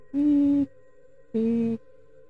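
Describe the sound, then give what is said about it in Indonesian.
A voice imitates a creaking wooden board with two drawn-out, tonal groans, each about half a second long, separated by a short pause. It is fairly loud, with no other talk. “suara papan di suara, suara papan.”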